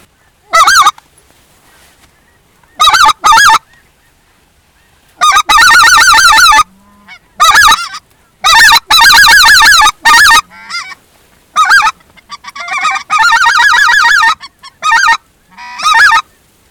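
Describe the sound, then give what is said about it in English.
An acrylic duck call blown in loud, raspy bursts: single quacks at first, then longer rolling strings of quacks with short pauses between them, and no talking. “You got to go up there and show them how big of big of a man you are, and just ride that duck call right on the borderline from sounding great to squilling and messing it all up.”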